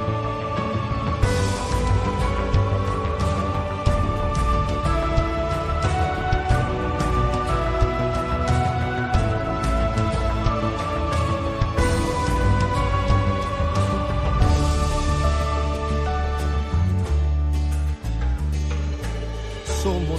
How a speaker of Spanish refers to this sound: Así que no tengamos miedo de decir al Señor, hágase en mí según tu palabra, como mm, decía eh, el himno de esta JMJ de Panamá. Hágase en mí según tu palabra. Lo vamos a escuchar.